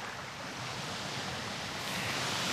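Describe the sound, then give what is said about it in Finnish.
Water of Lake Puruvesi at Punkaharju, Finland, laps steadily against the shore by a cottage porch in a continuous, gentle wash, with a moderate breeze playing through leafy deciduous trees mixed in and no voices present. “Tässä rannassa ollaan mökin kuistilla ja kuunnellaan kuinka puruvesi liplattaa hienosti.”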